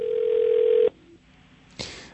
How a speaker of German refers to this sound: die sind jetzt da am Telefon und, und, äh, und warten und, und gucken, wer, wer dran geht.